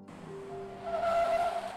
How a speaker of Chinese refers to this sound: 忽然间，门外传来一阵急刹车。